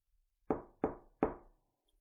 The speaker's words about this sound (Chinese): 听到敲门声响起。